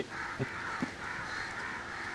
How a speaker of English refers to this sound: And I believe a group of crows are called a cackle of crows. You can see why the sounds that they make. All right. We'll go through it. if we are as enthusiastic as these crows, then today today's a good day.